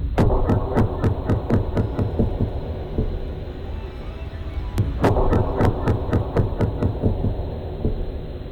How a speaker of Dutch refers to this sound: Bij de stuiterende stok was de specht bijna twee keer zo snel. Dit is de specht. Dit is de stok. Dit zijn ze samen. En vertraagd.